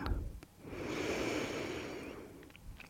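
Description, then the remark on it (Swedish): A single long, deep breath drawn in through the nose during a guided breathing exercise, steady, swelling over about two seconds with a soft airy hiss, then easing off. No one speaks. “En gång till, andas in.”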